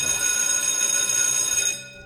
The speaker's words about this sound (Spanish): Y sonó el timbre indicando que el examen había terminado.